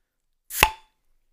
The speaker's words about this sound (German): Ja, ich mache mir erstmal mein alkoholvolles Bier auf. Ja, ist gemein. Vielleicht nehme ich dein Ploppen, weil meins wird nur so, hör.